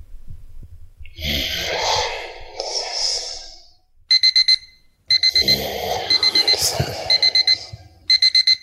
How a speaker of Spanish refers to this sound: Joder, no puede uno ni dar una cabezadita. Menos mal que solo es un despertador.